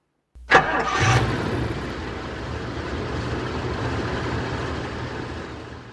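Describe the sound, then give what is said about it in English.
A car engine cranks briefly and catches, then settles into a steady, low idling rumble that continues fairly loud to the end, with no voices. “But you can talk to the car on the way.”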